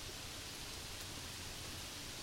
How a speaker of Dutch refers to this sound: Het regent buiten.